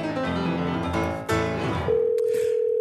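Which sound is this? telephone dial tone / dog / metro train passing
telephone dial tone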